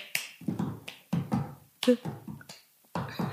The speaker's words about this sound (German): So irgendwie so klatscht du halt, also so ein Becher okay. und dann so.